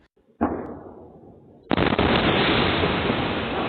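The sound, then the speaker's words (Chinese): Two huge explosion booms in Shanghai's Songjiang District on the evening of January 29, heard clearly by people inside their homes: a first blast that rumbles and slowly fades, then a second, even louder boom that hits sharply and keeps roaring without dying away. No one speaks. “超大爆炸声，人在家中都听得一清二楚。”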